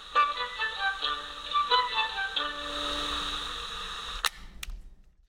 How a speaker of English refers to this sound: I, I, recorded some of the, the woodwinds through my microcassette recorder and played it. And then shortly after that line, I pressed stop. So you get that kind of that, that cheap plastic microcassette sound that clicks right in those lyrics.